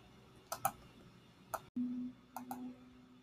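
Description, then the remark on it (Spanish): An alarm clock goes off at 5 a.m. in an apartment: a few sharp clicks, then a low, steady buzzing tone that starts abruptly and keeps going with more faint clicks. It is fairly quiet, with no voices. “La alarma del despertador se escucha, las 5 a.m. marca el reloj.”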